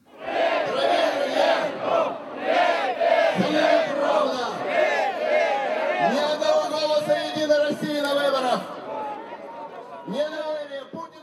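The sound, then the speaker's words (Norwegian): A large crowd of some 8,000 to 10,000 protesters at a protest rally in central Moscow, Russia, called by the Russian Communist Party against raising the pension age, chants slogans in unison demanding a referendum on the pension reform. Loud rhythmic shouting with rising and falling phrases repeats over and over, sustained throughout. “Vi vil ha folkeavstemning om pensjonsreformen, roper deltakerne på et protestmøte i sentrum av Moskva.”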